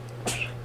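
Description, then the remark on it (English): A single quick sneeze, a short breathy burst that fades fast, with a steady low hum in the background and no talking. “Bless you. Bless you.”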